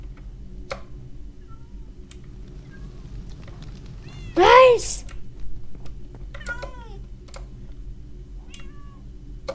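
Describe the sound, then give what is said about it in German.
A cat lets out one loud, drawn-out meow, followed by a fainter second mew, over a steady low hum with occasional clicks and a brief spoken word. “Wenigstens sind meine Ka äh, wenigstens sind die Katzen da. Katze. Mau.”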